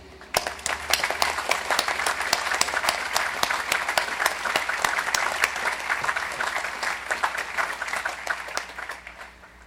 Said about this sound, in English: Please join me in applause to express our appreciation.